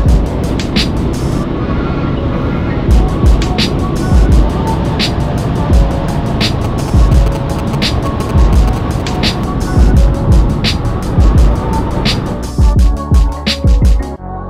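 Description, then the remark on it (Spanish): A car speeds along a German autobahn with no speed limit, with a loud, steady roar of road and wind noise, broken by occasional low buffeting thumps, for the whole stretch. “Y ahora ya estamos en Alemania y por fin hemos, hemos entrado en un autobahn sin límite de velocidad.”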